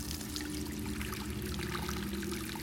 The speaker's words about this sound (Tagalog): May kakaibang pakiramdam ang atid ng tunog na likha ng pagbuga ng tubig. Taguktok ng tabo sa paglapat nito sa pinakailalim ng batya at maging ang pagbuhos ng tubig sa mga timba.